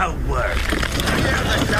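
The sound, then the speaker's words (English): Work noise aboard a ship: a steady, loud wash of mechanical clatter and grinding, with scattered metallic knocks and a low rumble running underneath throughout. “All right, the working on the ship, I should have played a little bit longer.”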